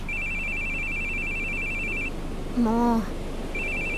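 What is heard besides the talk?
telephone ringing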